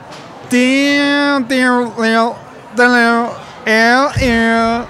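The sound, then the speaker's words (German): A voice imitates a sour, off-key guitar solo started a semitone off, with five sustained, bending tones that slide and waver in pitch, fairly loud, with brief gaps between the phrases. “Ich setze aber trotzdem an und setze echt einen Halbton daneben an.”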